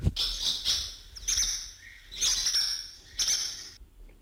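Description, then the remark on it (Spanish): Barn swallows twitter in three bright, busy bursts of chattering calls, each lasting about a second with short pauses between, clear and with no voices present. “pois empezaremos con esa a quen lle cantaba …, a …”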